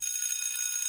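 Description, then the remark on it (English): A bright, high-pitched bell rings continuously with a sustained metallic shimmer, steady and fairly loud throughout, with no voices. “Um, we talked a little bit, and we just rung the bell.”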